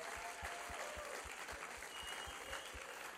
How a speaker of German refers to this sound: Geben wir dieser ICF Bern Band einen Applaus. So genial seid ihr da gewesen.